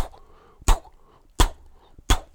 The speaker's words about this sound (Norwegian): Så elsker jo jeg lyden av skrivemaskin. Og det er, jo, det er, jo, min industri og min produksjon, det at jeg trykker bokstaver på et hvitt ark.